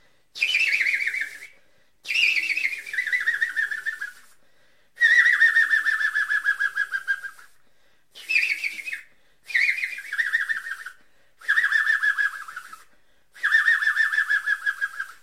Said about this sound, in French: Le pic vert, il, il fait un drôle de bruit, là.